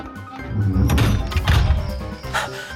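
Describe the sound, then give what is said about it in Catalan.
A door is opened and then shut again, with a run of wooden knocks, scrapes and dull thuds, ending in a firm closing bump. Nobody speaks. “Vingui, per aquí, la porta! Ja la veig!”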